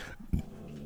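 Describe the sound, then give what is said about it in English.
A dog lets out one short, low woof or grumble while playing with another dog, a brief burst in the background against quiet room tone. “And oh, that's my dog in the background playing with my other dog in the background.”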